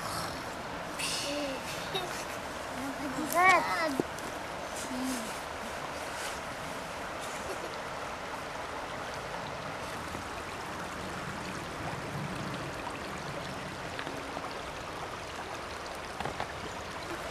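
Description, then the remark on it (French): A steady outdoor wash of flowing water and wind, broad and continuous, with the wind pushing the water toward the left; a brief louder rustle early on and faint sounds scattered throughout; no one speaks. “J'ai entendu l'eau qui faisait du bleu là-bas parce qu'il y a le vent qui le pousse vers, la gauche et, le, vent du derrière qui, qui pousse vers le...”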